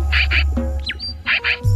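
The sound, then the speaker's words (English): A pied-billed grebe, a small, stocky, mostly brown diving bird, calls with harsh, paired croaking notes, a pause of thinner whistled tones, then another pair of croaks, clear with a low hum underneath. “Our featured feathered friend is the pied billed grebe.”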